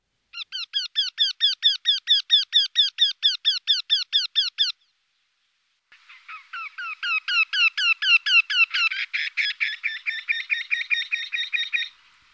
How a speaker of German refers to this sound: und hier im Vergleich mal der Ruf des Wendehalses.